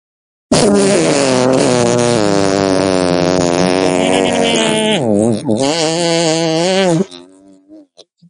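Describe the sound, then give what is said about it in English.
A voice imitates a fart with one long, loud, buzzing raspberry lasting about six seconds, its pitch wobbling up and down before it trails off in a few short sputters. “We'll have a three, two, one, and fart.”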